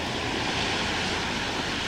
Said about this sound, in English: Moments later, they could hear the sound of an aeroplane circling overhead.